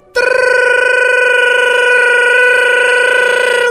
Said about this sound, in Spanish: Estoy acá, está en Cancún. ¡Estoy en casa! Teléfono 4 de la mañana.